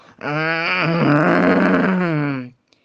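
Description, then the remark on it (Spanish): A single deep, drawn-out growl lasting about two seconds, loud, voiced by a person imitating a bear, steady and rumbling before cutting off abruptly. “De pronto oyó un gruñido”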